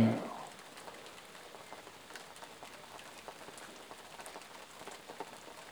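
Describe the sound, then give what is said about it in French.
Steady rain falls in a soft, even patter with scattered sharper drops ticking on a surface, continuous; a brief louder burst opens the moment before the rain settles in. “Profitez toujours du son de cette pluie de cette connexion avec la nature.”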